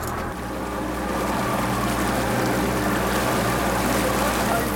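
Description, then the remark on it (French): A boat engine drones steadily on a river from start to finish, a constant low hum with rushing water noise over it, fairly loud, with no breaks or changes in pace, as the boat sets off on a 1.9 km river run. “Bon, moteur enclenché et... On est parti pour 1 km 900 de rivière.”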